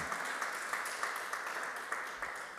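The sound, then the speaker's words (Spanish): A crowd applauds steadily, a dense wash of many hands clapping together at an even level throughout, without a clear individual rhythm. “Un aplauso, por favor.”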